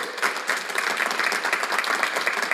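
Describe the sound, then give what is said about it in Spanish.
A church audience applauds steadily for Jesus, many hands clapping in a dense, sustained roar of claps with no pauses, fairly loud throughout. “Vamos, si tú lo crees, dale bien fuerte ese aplauso a Jesús.”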